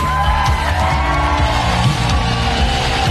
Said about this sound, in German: Yes, hallo Equippers Mainz! Geht's euch gut? Können wir Jesus mal einen richtigen Applaus geben?